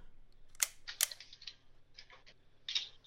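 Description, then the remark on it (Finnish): A Holga toy film camera's shutter clicks twice in quick succession, crisp, followed by softer plasticky mechanical clicks and rattles; the camera needs no separate cocking. No one speaks. “Tuommoinen niin klik-klik. Mm. Tämä on kamera, joka ei, jota ei tarvitse niin kuin erikseen virittää.”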